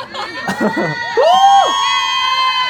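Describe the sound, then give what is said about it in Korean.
A crowd of fans of a singer and another singer, given an open mic during a live broadcast, erupts in loud, sustained cheering and high-pitched screaming, starting with some scattered shouts before swelling into a continuous wall of shrieks that holds to the end. “유니버스 소리 질러.”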